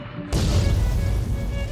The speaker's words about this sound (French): Elle s'emmêle dans l'hélice avant. L'avion pique du nez et va se cracher dans les marécages